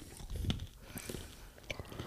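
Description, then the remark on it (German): Wet chewing sounds of someone eating a small, tasty food, with irregular crunchy bites and mouth noises, fairly quiet, with no talking over them. “Das tut uns sehr leid, dass ihr uns beim Kauen zuhören musstet, 10 Minuten.”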